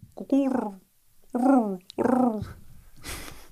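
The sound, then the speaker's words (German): A person mimics a pigeon's cooing with three low, throaty, warbling coos in a loose rhythm, followed by a soft breathy exhale. “Auf jeden Fall ist mir aufgefallen, ähm, dass das Geräusch einer Taube, äh, die, die guguren ja immer so.”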